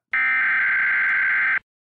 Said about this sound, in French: on a ensuite droit à l'alarme classique qu'on entend à chaque début de purge.